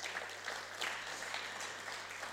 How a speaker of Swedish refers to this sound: Ska vi ge oss själva en applåd kanske?